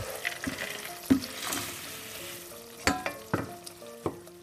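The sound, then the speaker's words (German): A grain and seed mix being stirred into melted white coconut fat in a pot on a stove at medium heat, with a steady crackling sizzle and several sharp clattering scrapes of a spoon against the pan, with no talking. “Zum geschmolzenen Fett gieße ich jetzt die Körnermischung.”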